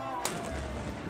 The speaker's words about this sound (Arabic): وهذا صوت مدفع الفطور